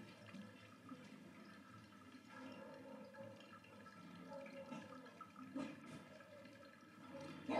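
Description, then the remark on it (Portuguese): A steady stream of water is poured over coffee grounds in a pour-over brewer, finishing the extraction with 220 ml of water, a continuous trickling and splashing that swells slightly at the end, with no one speaking. “Agora eu finalizo a minha extração com 220 ml de água.”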